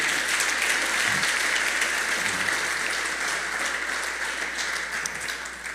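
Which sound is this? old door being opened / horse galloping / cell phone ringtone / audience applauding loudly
audience applauding loudly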